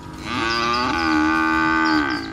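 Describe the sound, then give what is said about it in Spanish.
A single long, loud moo from a cow among cattle in Durango, Mexico, a low, droning bellow that rises slightly at the start and holds steady for about two seconds before fading. No one speaks. “en riesgo 300.000 cabezas de ganado por falta de agua y alimento, reveló Rogelio Soto Ochoa, presidente de la Unión Ganadera Regional de Durango.”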